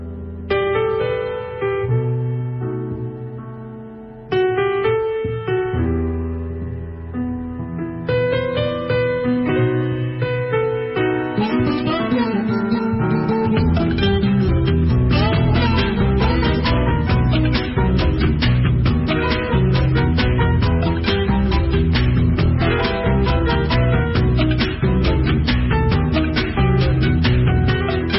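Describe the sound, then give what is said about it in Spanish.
A song from a 2005 album in a 1970s style plays loud, opening with sustained melodic instrumental phrases that pause briefly, then a full band with steady drums and busy percussion kicks in and drives on. “Lo publicó en el año 2005 y ahora vamos a escuchar otra pieza otra pieza de esta placa, que es también nos mete en el túnel del tiempo, nos traslada hasta la década del 70 y suena así”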